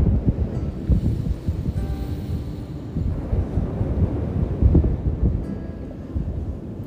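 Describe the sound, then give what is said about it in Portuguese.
Steady wind blowing at the beach, a deep continuous roar with gusts buffeting the microphone, rising and falling slightly throughout, with no voices. “Sente o vento batendo no teu rosto e solta, expira.”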